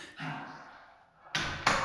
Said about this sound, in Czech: V tom uslyšel vrznutí dveří protějšího bytu. Okamžitě se otočil, aby se mohl představit novým sousedům, ale...